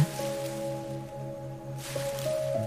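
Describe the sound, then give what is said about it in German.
Soft, continuous rustling and scuffling in hedges, briefly easing off midway, heard over a steady sustained musical drone. “Ein Rascheln in den Hecken kündigt weitere Besucher an.”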